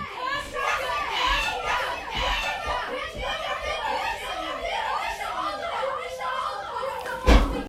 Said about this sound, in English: Oh, it's the famous door slam.